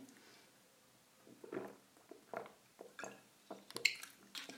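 drinking and swallowing water

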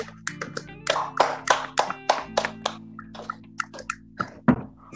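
round of applause

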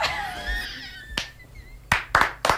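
hands clapping in applause

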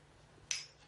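glasses clinking

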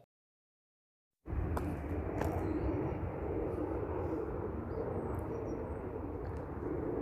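airplane flying overhead

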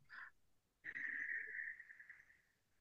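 ujjayi breathing

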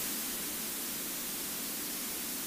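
white noise

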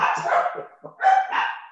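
small dog barking

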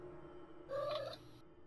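cat

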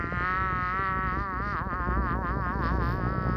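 electric fan blowing air

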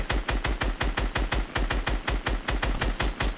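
video game gunfire

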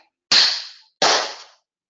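hand clapping

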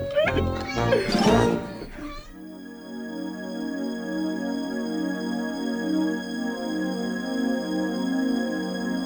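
cat meowing sound effect

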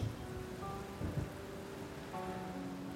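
thunderstorm with rain

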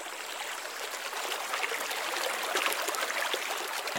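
river water flowing

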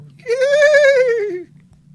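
horse neighing

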